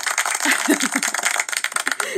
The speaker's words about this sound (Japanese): 拍手の音出しときましたけど